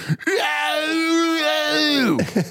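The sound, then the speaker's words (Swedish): A voice imitates the long, loud scream of a woman running as fast as she can down a corridor, a sustained high wail held for about two seconds before dropping off, alone with no talking. “Sen springer hon så snabbt hon kan längs hela korridoren och skriker högt.”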